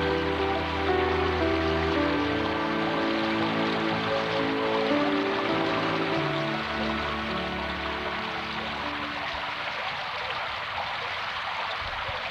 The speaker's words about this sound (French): Il pleut toujours